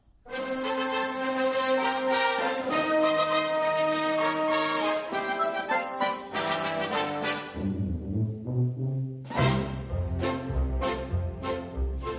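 A playful, country-flavored instrumental intro to a musical soundtrack song: bright sustained chords give way to a bouncy, plucked rhythm with light percussive accents, loud, with no voices.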